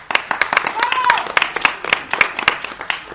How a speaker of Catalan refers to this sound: Un fort aplaudiment!